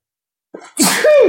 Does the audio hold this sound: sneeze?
yes